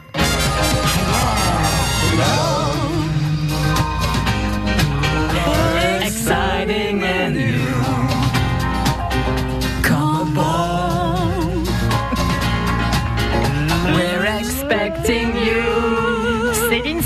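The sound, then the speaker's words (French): A lush, upbeat theme tune of a TV series set on a cruise ship plays loud and steady, full band with a sweeping melodic lead line that rises and falls throughout, with no talking over it. “la croisière s'amuse, on est d'accord”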